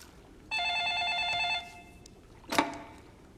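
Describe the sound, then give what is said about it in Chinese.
A telephone rings once with a steady, bright electronic tone lasting about a second, followed after a short pause by a brief, sharp clunk. No one speaks. “电话是不是响了？”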